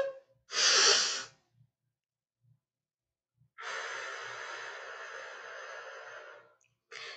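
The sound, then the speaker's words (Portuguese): Deep breathing during a guided breathing exercise: a short, sharp inhale, a pause of a couple of seconds while the breath is held to a count of four, then a long, steady exhale lasting about three seconds, clear with no talking. “Respira fundo. Um, dois, três, quatro solta. De novo, respira fundo.”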